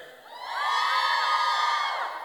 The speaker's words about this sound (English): If you think this is a red flag, let me hear a woo woo.